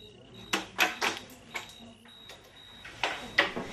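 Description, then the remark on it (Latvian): Novus board game pieces click and clack against each other below a window in an irregular series of sharp, hollow knocks, about eight or nine of them, fairly soft, with no voices. “Lejā zem loga sāk knakšķēt novusa kauliņi. Tikš, takš, plakš.”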